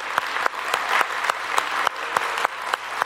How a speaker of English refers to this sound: So I just want to give a round of applause for all the moms in the house.